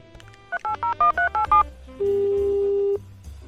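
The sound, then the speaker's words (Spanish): A quick run of seven telephone keypad tones beeps out in steady rhythm as a phone call is dialed, followed by a longer single steady tone, all clear over a low background hum. “Por aquí tenemos el, um, el Tales, vamos a hacer la llamada. Vamos a hacerle la llamada al pana, ¿sí?”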